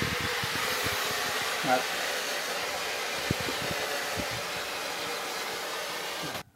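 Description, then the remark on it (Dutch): Water poured onto hot sauna stones sends up a loud, steady rushing hiss that holds for about six seconds, with scattered low thumps and a brief murmur, before cutting off abruptly. “Nou, gaan we er maar in. Oh, lekker man. En dan eh, wat water erbij.”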